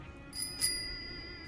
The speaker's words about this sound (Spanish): Andas con el timbre en la bici, vamos a ver, que no paran de sonar de eh, cosas.